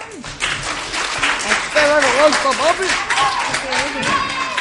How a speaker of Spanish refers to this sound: Vamos a darle un aplauso, ¿no?